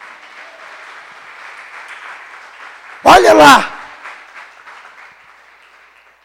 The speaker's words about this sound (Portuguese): Aleluia. Aleluia. Vamos aplaudir Jesus.